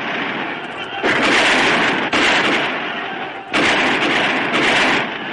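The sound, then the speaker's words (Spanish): A dense, loud wall of battle noise as Americans and Juarista forces attack fortifications at Veracruz, Mexico, defended by imperial troops who repel the attack: gunfire and artillery blasts blur into a continuous roar that surges in heavier bursts, with faint indistinct voices mixed in. “Desde sus posiciones de disparo, los americanos ven cómo los soldados repelen el ataque de los rebeldes que se retiran de la explanada que da acceso al fuerte.”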